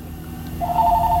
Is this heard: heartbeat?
no